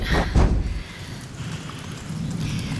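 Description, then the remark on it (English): Steady rain falls indoors, a continuous hiss of drops with a deep rumble swelling at the start before settling into an even downpour. “Raining. How is it raining indoors?”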